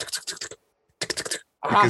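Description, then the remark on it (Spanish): Two quick bursts of rapid keyboard-like clicking separated by a brief silence, followed by a louder voiced, groan-like sound at the end. “Güey, que, se escuchan los clics del teclado”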